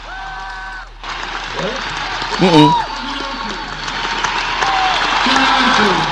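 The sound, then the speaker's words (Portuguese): A concert crowd applauds a young guy on stage who has not even played the drums yet, in a steady, dense wash of clapping that fills the whole clip, with people talking briefly over it and a few short voiced sounds rising above the noise. “E tu vê, o guri era tão bom que ele nem tocou bateria e a galera tá aplaudindo.”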